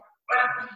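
A single sharp dog bark bursts out after a brief quiet moment, fairly loud, with a faint softer sound just before it.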